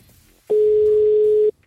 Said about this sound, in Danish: Og det er din mor, vi ringer til. Det er min mor, vi ringer til. Slider ind, som man siger. Hendes nummer, øh, det bliver tastet ind nu.